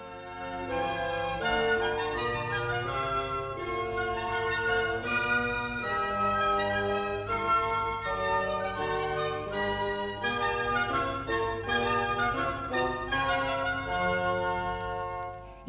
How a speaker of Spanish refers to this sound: Las maderas podemos decirles ahora que ya las conocemos. Flautín, flauta, oboe, corno inglés, clarinete, fagot y contrafagot. Escuchemos cómo suenan todos juntos los instrumentos de la familia de las maderas.